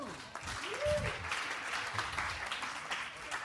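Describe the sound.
A crowd applauds steadily, a dense wash of many hands clapping at once, with a brief tonal whistle or voice rising near the start and some murmuring underneath.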